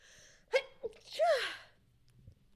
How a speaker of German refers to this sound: Danke. Gesundheit.